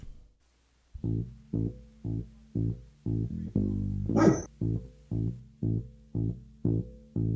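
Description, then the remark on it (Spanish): A steady, pulsing bassline of music plays in even beats while a dog lets out a single loud bark midway, as if joining in with the song. “Hasta León la canta.”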